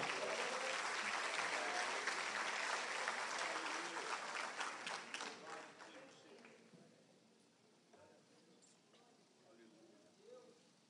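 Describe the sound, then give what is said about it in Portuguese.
A church audience breaks into a dense burst of applause for Jesus, loud and steady for several seconds, then thins out and fades to scattered claps and murmuring voices. “Se é verdade nisso, meus irmãos, levante as suas mãos e já aplaude a Jesus com alegria.”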